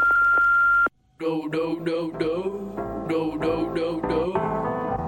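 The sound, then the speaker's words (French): A steady, high-pitched answering machine beep sounds for just under a second, cuts off into a brief silence, then gives way to a run of bright, rhythmic tonal notes. “Laissez un message après le bip.”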